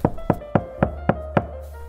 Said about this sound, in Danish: Nå, det, det banker på døren. Du må hellere åbne præst. Altså, hvem pokker kan det dog være på den her tid?